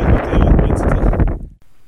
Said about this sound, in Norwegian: det, eh, det, blåste tydeligvis godt eh, i, Egersund